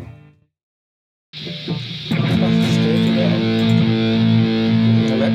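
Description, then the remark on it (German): An electric guitar played through a Big Muff fuzz distortion pedal, with thick clipped sustained notes that swell and ring out loudly after a short silence, no voices present. “richtig, das kommt schon so ins Clipping, dass ich das schon fast überschlägt. Also mal dieses Sagging eigentlich, also das sackt richtig ein.”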